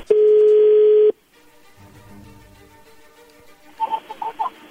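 A telephone ringing tone on an outgoing call that has just been dialed: one loud, steady, mid-pitched burst lasting about a second, then a quiet hiss on the line, ending with a few short clucking sounds.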